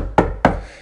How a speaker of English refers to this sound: It's the sound of me knocking loudly on wood table.